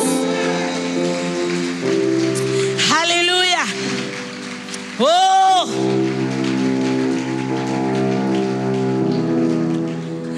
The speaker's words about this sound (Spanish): ¿Cuántos pueden darle palmas?